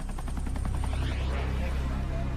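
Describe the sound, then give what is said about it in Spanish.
A rapid series of loud explosive bursts fires off in close succession, then blurs into a continuous roaring rumble that stays heavy and constant throughout: five dynamite explosions in Manhattan, New York City, just before midnight on 26 October 1974. “Justo antes de la medianoche, Cinco explosiones acuden a Manhattan.”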